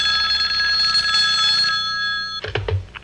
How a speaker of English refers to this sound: Hey, what was that thing? It sounded like a telephone ring. There it goes again, that ringing tone. It's coming from that public phone.